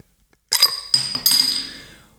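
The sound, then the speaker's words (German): A glass bottle being opened with a cylinder-shaped opener that is pressed down over the bottle top and pulled up, with a magnet that holds the cap: three sharp clinks of metal against glass in quick succession, the last one ringing out and fading slowly. No one speaks. “man hat seine Flasche geöffnet”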